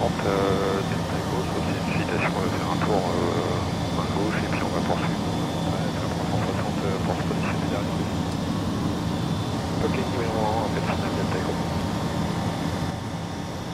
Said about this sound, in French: C'est impressionnant hein, quand même. Ça, ça a l'air hyper maniable. C'est maniable parce que c'est un avion école donc c'est le hein, euh, c'est relativement maniable.